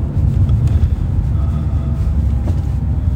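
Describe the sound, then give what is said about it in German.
A steady, loud low-frequency rumble of road noise from inside a moving car driving to a Kaufland store, with a faint hum above it and no talking. “Warum sind wir nochmal mit dem Auto?”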